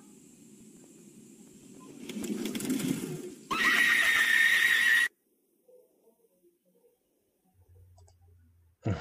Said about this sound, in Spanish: wow, con el gritito.